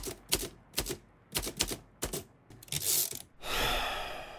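Crisp typing by someone writing a book in a small holiday house on the Baltic Sea coast: sharp key clacks in uneven bursts, some struck in quick pairs, ending in a longer sliding, rushing sound. No one speaks.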